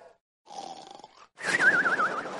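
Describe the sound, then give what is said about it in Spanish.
A voice does an exaggerated imitation of the biblical Jonah snoring aboard a ship: a rough, rasping inhale followed by a louder, gurgling snort with a wavering whistle on top, loud, with no words spoken. “Porque os va a deber que hacían, Jonás roncando estaba, hermano.”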